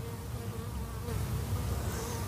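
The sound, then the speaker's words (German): A steady, dense drone of many honeybees buzzing together near a hive, a continuous hum that swells slightly partway through, with no voices. “Wir sind hier in Sichtweite vom Bienenstock.”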